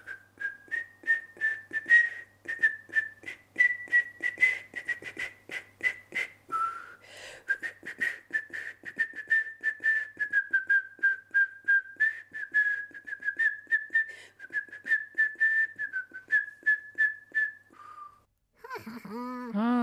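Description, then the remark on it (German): A person whistles a steady melody for nearly twenty seconds, the tone clear with short rhythmic pulses, ending with a brief voice-like sound at the very end. “diese Melodie, die kenne ich.”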